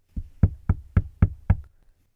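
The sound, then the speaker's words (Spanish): Six firm knocks on a wooden door in a quick, steady rhythm, fairly loud, with nothing else heard around them. “Se dirigió primero a la casa de paja y llamó a la puerta.”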